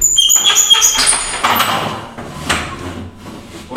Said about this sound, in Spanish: Voy a, voy a abrir la puerta.